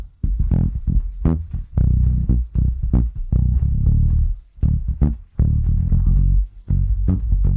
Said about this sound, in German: und das fällt auf, wenn man diese Bassspur vor allen Dingen mal als Nicht-Bassist, ne? also Bassisten hören natürlich im Besonderen auf den Bass, aber wenn man sich das mal einzeln anhören kann, wie das saumäßig groovt.